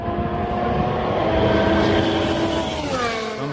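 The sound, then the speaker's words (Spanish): A loud, high-revving Aston Martin Formula 1 racing car engine roars continuously during testing, its harmonic whine shifting pitch slightly, with a rise and sweep near the end as it passes by. “vamos a escuchar un clásico del partidazo, el sonido del Aston Martin probándole sirve”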